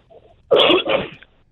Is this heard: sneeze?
yes